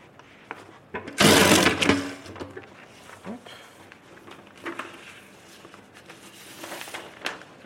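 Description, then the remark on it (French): Large-format sheets of music (formats 31, 45 and 7) being bound by hand: a loud, harsh burst of about a second, then softer scattered rustles, crinkles and light taps of handled paper, with no one speaking. “Et moi je suis en train de relier les grands formats 31, 45, 7. Parce qu'ici on fait tout à la main.”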